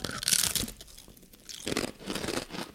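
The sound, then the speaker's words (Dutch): Loud, crackly crunching of ridged potato chips being chewed, in two bursts separated by a brief quieter pause, with sharp crisp snaps and no talking. “Het is een ribbelchips. Het zijn chips.”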